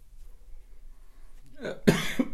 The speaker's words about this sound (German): falls ich huste, ich habe mich vorhin verschluckt und ihr kennt es auch, wenn es noch danach so kratzt und so, das deswegen gerade ein bisschen husten.